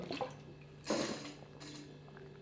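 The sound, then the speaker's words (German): Someone takes a sip of water: two short, wet, slurping bursts of liquid over a faint steady hum, with no talking. “Gut, jetzt habe ich einen Stück getrunken vom Wässerchen, das kann man ja auch mal.”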